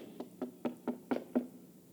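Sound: knocking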